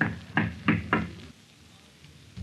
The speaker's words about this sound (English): And what will happen when the door of the manager's office opens to his knock